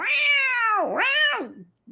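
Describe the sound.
A person imitates a cat with two drawn-out, wavering meows in quick succession, loud, with no other talk. The second meow fades out at the end.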